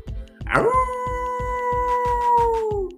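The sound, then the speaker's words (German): A person imitates the howl of Aka, a wolf in a story, with one long sustained tonal wail held for a couple of seconds and slowly falling, loud, over a steady low rhythmic pulsing in the background. “Ah, wie der Wolf Aka macht? Soll ich es mal machen?”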